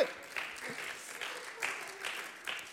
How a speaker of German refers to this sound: Ein Applaus für euch, äh, Puzzler. Richtig cool.